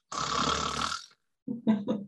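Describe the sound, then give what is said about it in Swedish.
A voice imitates loud snoring breathing: one long rasping inhale lasting about a second, a short pause, then a few choppy, throaty snorts. “Och, jag brukar säga det, tänk om du så hade gått runt i din vardag och gått runt och andas på det här sättet.”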